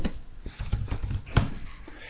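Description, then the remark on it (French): Irregular clicking of keys on a computer keyboard as someone looks up the URL of an article, a quick run of soft taps with one sharper press partway through, and no voices over it. “Je sais pas si tu entends le clavier là.”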